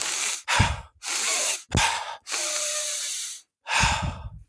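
A voice demonstrates audible breathing: about six airy, hissing breaths, alternating quick sniffing inhales through the nose with longer, steady exhales through the mouth, fairly loud and with no talking.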